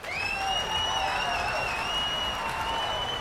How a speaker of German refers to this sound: Und dann bricht das Publikum in Jubel aus. Pfeifen, Jubeln und wildes Klatschen ist zu hören, als Race die Bühne sofort wieder verlässt.